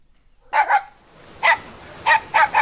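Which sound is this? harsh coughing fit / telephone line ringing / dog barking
dog barking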